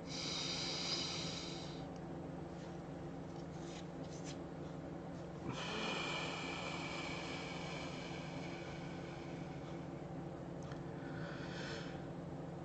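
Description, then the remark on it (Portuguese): Slow, deep breaths in a guided deep-breathing exercise, drawn in and let out as long airy rushes, steady, over a faint constant hum with no talking. “Respirando profundamente.”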